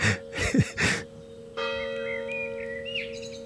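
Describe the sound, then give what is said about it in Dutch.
A single deep church bell stroke rings out and hums on steadily after a few soft rustling noises, with faint birds chirping over the lingering tone. “Die slaat de klok, hè?”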